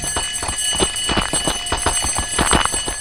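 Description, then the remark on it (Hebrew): A unit's loud alert bell rings continuously, its clapper hammering in a fast, steady rattle with a shrill metallic tone that fills the whole stretch without pause. “ואז אני מקבל, אה, יש ביחידה נוהל, זה די טראומטי, אתה שומע את הפעמון הזה, זה פעמון שאתה לא יכול אה, להתחמק ממנו.”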